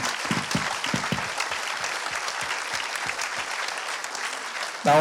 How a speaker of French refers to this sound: Bah, merci beaucoup. vous pouvez les, les applaudir, vraiment. Merci.